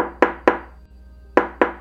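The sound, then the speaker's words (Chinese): Knocking on a door, heard by someone taking a hot shower, in two sets of three evenly spaced, solid knocks separated by a short pause, each knock sharp and resonant with a brief decay. No voices are heard. “怎么会有敲门的声音了？”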